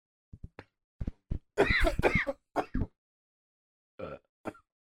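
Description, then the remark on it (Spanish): A series of harsh, loud coughs and throat-clearing bursts, clustered in quick fits with short pauses, then two more isolated coughs near the end. No one speaks. “Alerta COVID. ¿Quieres que traiga un cubrebocas?”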